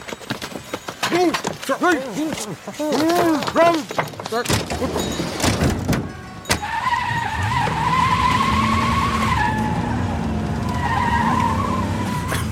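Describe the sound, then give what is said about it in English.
Van tires screech on a street on a holiday evening in a long, sustained, high-pitched squeal that wavers in pitch for several seconds, following a stretch of excited, repeated shouting voices. “It was a beautiful uh, holiday evening, and we were minding our own business, and and then all of a sudden, this van just comes screeching out of nowhere.”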